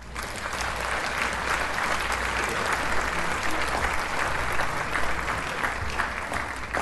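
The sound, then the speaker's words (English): A steady round of applause, many hands clapping in a dense, even wash of sound that holds at a constant loudness for several seconds without any voices. “Steve, can we have a round of applause here?”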